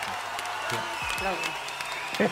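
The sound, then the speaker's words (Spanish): Steady, dense farewell applause for the departing Javier Parragués and Iván Morales, a continuous crackling wash of many hands clapping at once, with a few voices faintly audible underneath throughout. “Eh, este momento de despedida y estos aplausos que van a sonar próximamente son para el señor Javier Parragués e Iván Morales que se nos van.”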